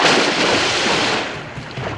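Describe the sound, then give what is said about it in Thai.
A heavy splash as a demon leaps backward into the water, loud, its frothy rush of churning water fading slowly over a couple of seconds with no voices. “เจ้าปีศาจเห็นดังนั้นก็เอาไม้รับแล้วกระโดดถอยออกลงน้ำนั้น”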